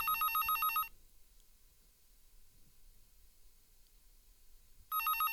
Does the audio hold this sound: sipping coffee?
no